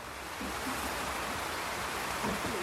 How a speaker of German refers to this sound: Ihr sitzt ja alle im Regen, Entschuldigung, das ist echt äh, ein bisschen verrückt.